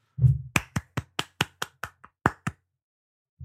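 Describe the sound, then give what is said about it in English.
About ten sharp hand claps in a quick, fairly steady rhythm, crisp and loud, with no one talking over them. “Everybody, clap your hands.”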